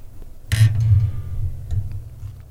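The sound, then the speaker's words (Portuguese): A sharp knock at the start leads into low, rumbling handling noise as a speaker lowers and adjusts a microphone, with a few faint clicks after. “Deixa eu abraçar aqui, eu abaixar o microfone aqui, porque eu.”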